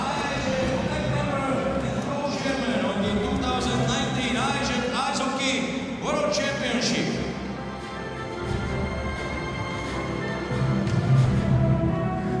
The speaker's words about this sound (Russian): Слышите вы, как сейчас болельщики сборной России скандируют «Молодцы! Молодцы!»